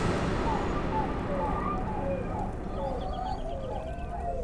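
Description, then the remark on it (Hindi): Strange calls of wild animals echo from a distance in a jungle at seven in the evening, a mix of wavering cries and clucking-like squawks layered over a steady low rumble of background noise. “हम सब इसी बात को आपस में डिस्कस कर ही रहे थे कि तभी हमारे कानों में दूर से जंगली जानवरों की अजीब अजीब आवाज़ें टकराने लगी”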